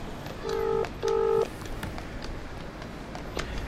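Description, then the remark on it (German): Two touch-tone beeps from a phone keypad being dialed to call a resident of the Isle of Man, each a steady dual-pitched tone lasting about a third of a second, separated by a short gap, followed by faint background noise. “Weil wir wegen Corona nicht wieder hinreisen können, rufen wir Phil Crane an.”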